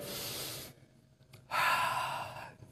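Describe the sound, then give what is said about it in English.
A deep breath: a long airy inhale, a short pause, then a fuller, louder rushing exhale, with no talking. “Um, so I just want you guys to take a deep breath with me.”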